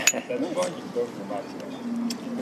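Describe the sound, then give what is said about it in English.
A couple of bright, ringing glass clinks, like drinking glasses tapped together in a toast, with murmuring voices in the background. “So cheers. cheers.”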